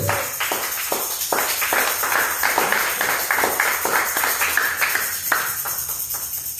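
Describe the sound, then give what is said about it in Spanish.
A crowd claps its hands for Jesus Christ during a Spanish-language church sermon, in a fairly steady rhythm, the sharp overlapping claps forming a dense, lively patter that continues throughout without any talking. “Palmas a Jesucristo.”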